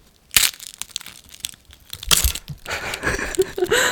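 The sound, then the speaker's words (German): A crisp fortune cookie is snapped open, with two sharp cracks followed by a stretch of dry, crinkly crunching and crumbling. No one speaks. “Aber vielleicht hier so den Keks, wie man ihn so aufbricht.”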